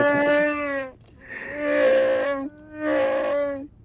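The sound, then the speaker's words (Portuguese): A voice imitates a scream with three loud, drawn-out cries, each held about a second with short gaps between, the pitch steady and sliding down slightly at the end of each. “É, tem que ter o grito.”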